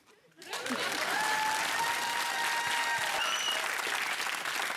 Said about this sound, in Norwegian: Jeg er klar med å berette, og jeg vender meg mot publikum for applaus.